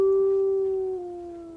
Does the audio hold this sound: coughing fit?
no